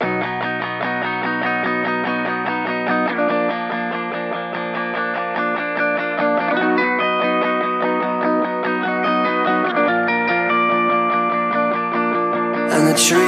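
A rock band plays at full volume, thick distorted guitar chords ringing out and shifting every few seconds over a steady, dense wall of sound, ending on a brief burst of crashing noise.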